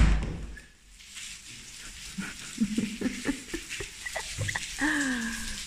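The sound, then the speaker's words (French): Heavy rain pours down outside while it is still dark, in a steady, dense hiss that fills the whole clip. Brief tonal squeaks and a short voice-like sound rise over the downpour near the end. “Je sais pas comment il peut y avoir autant d'eau dans le ciel.”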